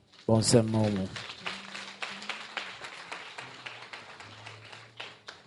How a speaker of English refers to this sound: All the Nigerians who are always in the house, please, I, I want to see you. All those who are in the house, be on your feet. Let's clap for them.